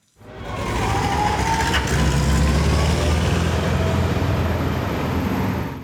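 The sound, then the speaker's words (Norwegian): Heavy engines rumble steadily, a deep continuous motor drone with some revving, as old military vehicles carrying armed extras drive back and forth in Grünerløkka, Oslo, on the last day of filming scenes for the film 'Den største forbrytelsen', with no voices. “Eksosen ligger tjukt over Grünerløkka i Oslo når gamle militærkjøretøy med bevæpna statister kjører fram og tilbake.”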